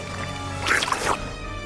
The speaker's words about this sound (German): Das ganze Schiff läuft voll Wasser.